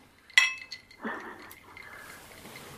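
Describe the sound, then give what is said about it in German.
A single bright clink of glasses touching in a toast after drinks were refilled, ringing briefly, followed by soft handling noise and low rustle with no one speaking. “Haben unsere podcast getränke wieder aufgefüllt. Prost, Prost!”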